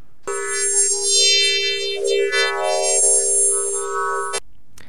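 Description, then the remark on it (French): Recorded radio emissions from Jupiter, from several sources near the planet whose beams sweep the observer like lighthouses at various frequencies as Jupiter rotates, play as a steady, buzzy electronic tone rich in overtones, with faint warbling sweeps for about four seconds before stopping abruptly. No one speaks. “ces sources radio tournent un peu comme des phares, comme le faisceau de phares en fait qui balaye l'observateur”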